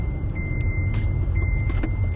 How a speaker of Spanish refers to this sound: Me voy a poner mi cinturón porque sí, vengo en el coche aquí grabando esto.